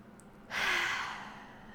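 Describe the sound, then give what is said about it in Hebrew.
A single deep breath, a breathy rush that starts abruptly and trails off over about a second, like a long sigh. No one speaks. “אז בואו ניקח נשימה.”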